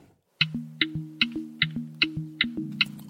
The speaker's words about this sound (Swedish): Och därav så är det ju det som de flesta kopplar ihop med ett blinkersljud, ett relä. Vi ville med den här bilen ha ett ljud som var mer, mer kopplat till varumärket, men också lite mer body, lite mer tyngd kan man säga.